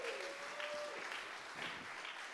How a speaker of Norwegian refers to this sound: Kjempebra! Stor applaus.